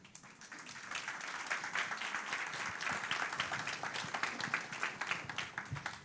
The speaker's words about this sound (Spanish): Un aplauso